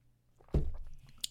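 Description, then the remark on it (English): A single sip from a drink, a soft wet gulp that starts abruptly and fades, followed by a small sharp click. Nobody speaks. “another sip.”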